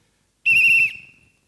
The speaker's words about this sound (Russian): Как только мяч вышел за пределы поля, раздается свисток. Я свистел. Аминь. Аллилуйя. Раздается свисток, не бойтесь. Я хочу, может, громко чуть-чуть.